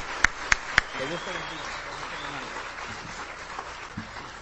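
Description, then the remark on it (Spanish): An audience at a religious gathering gives a strong round of applause for a brother invited to preach. The applause is a dense, steady wash, with a few sharp, loud claps standing out at the start and faint voices mixed underneath. “vamos a dar un aplauso pero bien bien fuerte a nuestro hermano”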